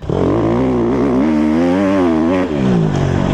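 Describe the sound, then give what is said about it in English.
A CRF150R dirt bike engine revs loudly, its raspy buzz rising and falling in pitch without a break, with a brief dip before it picks up again. “And while that's really cool and fun to ride uh, on the track, if you're an experienced rider or if you're just riding up and down on a straight path that's smooth, that snappy power is really cool and the bike is really loud.”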